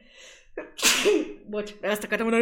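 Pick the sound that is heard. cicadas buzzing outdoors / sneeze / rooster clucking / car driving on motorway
sneeze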